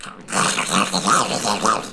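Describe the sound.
A person does a Donald Duck voice impression: a raspy, buzzy, gravelly squawking that runs steadily for about two seconds, fairly loud, rising into a few brighter pitched bursts.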